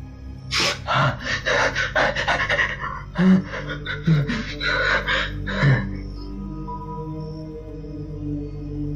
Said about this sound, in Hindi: वो हड़बड़ा कर उठा उसकी सांसें बहुत तेजी से चल रही थीं।